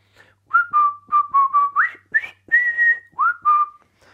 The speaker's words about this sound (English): my suggestion is practice first of all whistling. Just whistle.